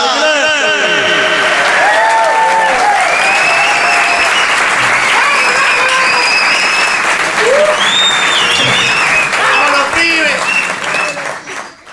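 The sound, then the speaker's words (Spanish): Loud, sustained applause from an audience welcoming a trumpet player, with scattered cheers and whistles rising above the clapping, continuing steadily before starting to fade at the very end. “aplauso para recibir a la trompeta dorada.”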